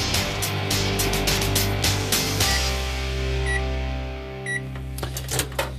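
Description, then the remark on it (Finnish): An unbranded microwave oven hums steadily amid some clattering, then gives two short, bright electronic beeps a second apart, with no one talking. “Se on mikroaaltouuni ilman tuotemerkkiä tällä kertaa.”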